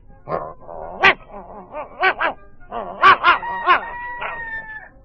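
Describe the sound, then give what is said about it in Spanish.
A dog gives a quick run of loud yipping barks in a bouncy, laugh-like rhythm, trailing off into a thin drawn-out whine at the end. “El perro se echó a reír.”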